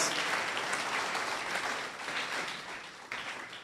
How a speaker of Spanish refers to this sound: Y vamos a darles un aplauso de bienvenida a todos ustedes.